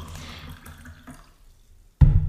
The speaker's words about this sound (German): Ich gieße mir mal ein Wasser ein übrigens.